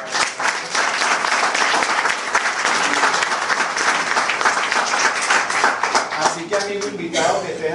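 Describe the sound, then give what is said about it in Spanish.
Steady, loud audience applause at an Amway talk, for Amway putting downloadable training audios for new people on its website, a dense wash of many hands clapping, with a voice or cheer rising over it near the end. “Un aplauso por eso.”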